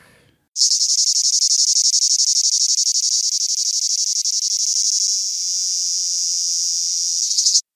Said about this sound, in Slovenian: Tako da zelo razširjen po vsem sredozemlju je veliki škržat. Um, v Sloveniji je to največja vrsta med vsemi um, in, in je pogost uh, v naši istri, pa tudi na Goriškem in na Krasu, in se oglaša tak.